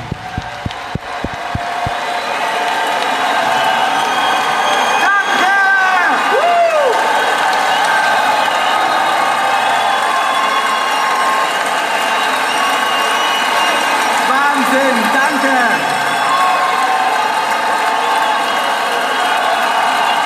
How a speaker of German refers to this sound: Meine Damen und Herren, liebe Gäste, ich möchte Sie bitten, mit einem riesen, riesen, riesen Applaus unseren Moderator